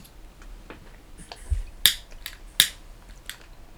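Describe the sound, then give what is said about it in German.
A lighter's flint wheel is struck repeatedly without catching as someone tries to light a candle, giving a run of sharp, bright clicks and scrapes, two of them louder, with no voice over them. “Natürlich funktioniert das Feuerzeug in dem Moment nicht.”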